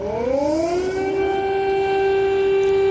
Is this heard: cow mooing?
no